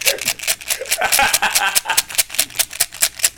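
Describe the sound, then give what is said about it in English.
Dice clatter and rattle continuously for a few seconds, a dense run of sharp clicks and knocks, fairly loud and uneven in rhythm. “I couldn't hear you couldn't hear you over uh, making my fate rolls.”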